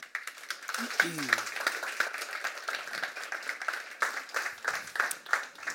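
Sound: audience applause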